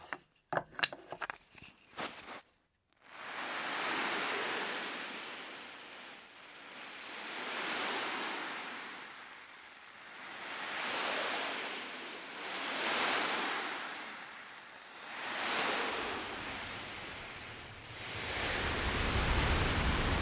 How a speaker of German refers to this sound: das kann man eben perfekt mit zwei Bürsten und diesem Kissen, und zwar genau in dem Rhythmus, wie die Welle auch wirklich bricht